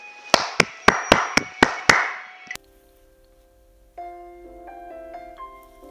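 Seven sharp, evenly spaced claps ring out in a steady rhythm, like a short burst of applause welcoming a mentor on the storytelling show 故事大会, then stop abruptly; after a brief pause a soft, tuneful melody begins.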